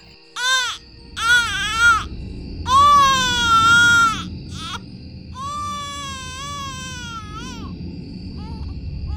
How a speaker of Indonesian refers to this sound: nah dia lagi belajar belajar gitu uh, dia dengar suara bayi